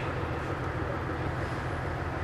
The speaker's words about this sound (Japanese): 大体30分ぐらいですね石巻から野川まで電車で9時33分ゆっくりと、えー、電車が走り始めました